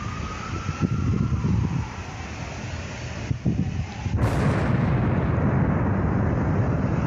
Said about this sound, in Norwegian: Noe sprengte en seif, tror jeg. Nei, ja. Sprengte veggen. Hva var det? Noen som sprengte en safe? Mamma, det der var torden.